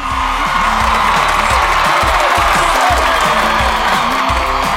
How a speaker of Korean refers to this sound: 힘찬 함성 주세요.